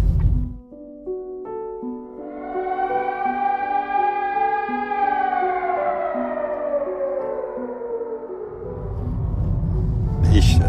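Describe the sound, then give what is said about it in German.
An air raid alarm siren in Kyiv wails steadily, its harmonic tone rising and then slowly falling in pitch over several seconds, with a low rumble underneath before noise takes over at the end. “wollte einchecken ins Hotel, das äh, ging aber nicht, weil in dem Moment äh, ein Alarm bereits ausgelöst wurde und äh, ich sofort eigentlich in die Parkgarage runter musste.”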